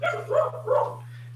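A dog gives two or three quick, yelping barks, with no one talking and a steady low hum running underneath.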